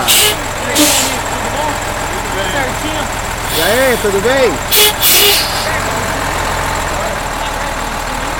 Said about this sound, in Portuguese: E agora vai passar pela nossa frente aqui um carro de bombeiros, tá saindo pra trás aqui. Olha só.